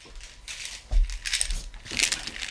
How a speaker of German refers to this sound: ich habe gerade ich, ich hab kurz mein Headset auf den Tisch abgelegt, deswegen habe also. ich gerade nicht gehört.